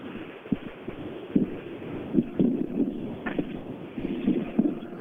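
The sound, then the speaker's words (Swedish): Strong wind blows at an outdoor rally stage, buffeting the microphone with a continuous low rumble broken by irregular thumping gusts, fairly loud, with no voices. “Men jag kan säga i den här vinden så stannar det inte så länge.”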